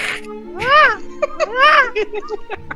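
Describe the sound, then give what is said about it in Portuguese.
A child's voice lets out two shrill, arching screeches imitating a falcon's cry, with a few short vocal sounds between and after them. “Não quer ser um falcão? Agora grita. Um barulho de falcão, exatamente.”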